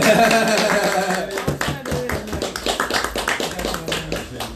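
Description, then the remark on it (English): Hands clap in a quick, uneven run of sharp claps, following a brief stretch of voices or laughter, the clapping fairly loud and continuing to the end. “I'm gonna clap it up. We'll clap it up.”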